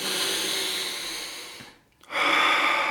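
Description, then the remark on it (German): A single slow, deep calming breath, a long airy inhale, a brief pause, then a breathy exhale starting. No one speaks. “Und dieser eine Atemzug bringt mich schon mal wieder ein bisschen runter.”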